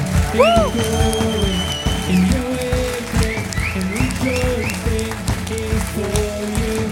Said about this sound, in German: Ja, lasst uns doch die Kinder zurück in die Schule schicken mit einem grossen Applaus noch einmal.